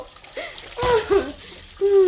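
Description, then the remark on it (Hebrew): A sudden splash of water being poured out in someone's study, a short sloshing burst lasting under a second, with brief vocal sounds around it. “ולא לשכוח לשפוך מים בחדר העבודה שלו.”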